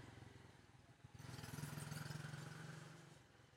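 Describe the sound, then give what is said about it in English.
A motorbike engine drones steadily outside, its note rising and swelling as it approaches around the middle, then holding loud before easing slightly as it passes by. “Go-kart meaning motorbike, apparently.”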